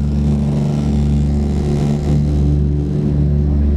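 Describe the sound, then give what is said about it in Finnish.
A loud, steady drone of a DC-3 airplane's two piston engines, about 1200 horsepower each, at takeoff power during the climb, a deep throbbing hum with layered low tones that holds constant throughout, with no voices over it. “Eli molemmissa moottoreissa on niin kuin 1200 hevosta voimaa yhteen.”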